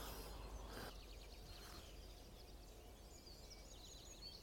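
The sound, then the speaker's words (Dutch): A common nightingale sings faintly in reed and woodland, late in the season, repeating quick whistled phrases and trills against a steady outdoor hiss, with no one talking. “Een nachtegaal hoor je nog steeds.”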